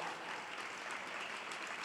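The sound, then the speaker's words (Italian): A steady wash of audience applause, many hands clapping at once in a dense, even patter with no voices, fairly soft. “Applaudiamo, li, applaudiamo gli scartati quelli che questa cultura qualifica di scartati, questa cultura dello scarto, cioè applaudiamo gli anziani, i bambini, le persone con disabilità,”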